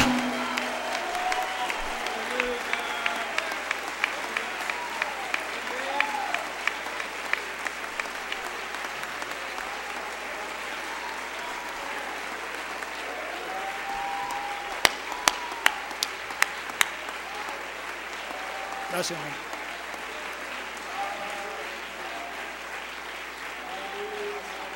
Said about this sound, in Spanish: Démosle ese aplauso de victoria.